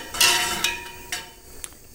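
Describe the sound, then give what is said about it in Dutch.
A metal spoon stirs water in a pot in one direction to make a small whirlpool, knocking against the side in four light clinks at an uneven pace, each leaving a faint metallic ring over a soft swishing background. “roer je het water één kant op, zodat in het midden een soort van draaikolkje ontstaat.”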